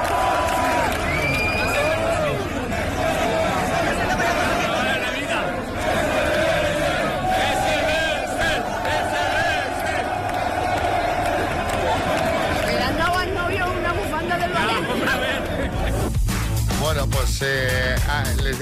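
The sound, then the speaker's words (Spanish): A large crowd of Valencia football fans cheers and chants loudly and continuously as they greet a car on its way to the cathedral, voices blending into a dense roar with whoops rising above it, the excitement surging near the end. “pues se encontraron con una marabunta de aficionados del Valencia que lo recibieron con más entusiasmo que al autobús de su equipo.”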